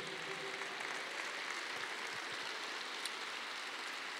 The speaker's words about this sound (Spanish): Dile, Padre, glorifica a Jesús a través de este aplauso.